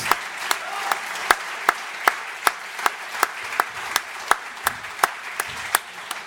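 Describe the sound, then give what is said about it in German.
An audience applauds steadily as a sponsor's representative from McDonald's is welcomed onto the stage. It is a dense wash of clapping punctuated by sharp, regular beats as many hands fall into a shared rhythm, sustained and fairly loud with no one speaking. “Und äh, für Sie brauche ich einen ganz großen Applaus”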